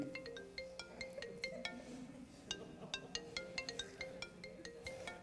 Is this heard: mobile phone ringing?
yes